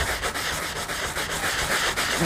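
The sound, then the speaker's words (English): A sanding block rubs steadily against a paper napkin in quick back-and-forth strokes, a dry, raspy scratching that stays even throughout with no voices. “Couldn't quite hold up to sanding block.”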